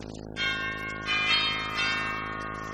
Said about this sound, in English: I walked up to the cottage, rang the bell.